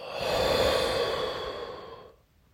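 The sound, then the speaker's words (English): A long, breathy exhale lasting about two seconds, a steady airy rush that swells early and slowly fades out, with no talking over it. “Play responsibly, get money, inhale, exhale.”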